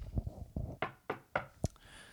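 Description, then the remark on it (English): Several sharp knocks rap on a wooden IKEA coffee table, a few dull thumps followed by louder, crisper raps at an uneven pace, with no talking. “And uh, I got to tell you, and I should knock on wood for this.”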